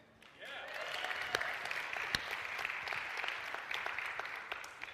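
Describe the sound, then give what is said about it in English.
A crowd breaks into sustained applause for a band, a dense wash of clapping that starts abruptly and holds steady for several seconds, with a few sharper individual claps standing out. “Let's hear it for the band.”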